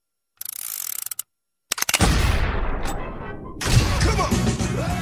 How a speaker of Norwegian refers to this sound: vi snakker selvfølgelig om Kill Bill-volum 1. og vi kan høre en liten snutt på traileren her.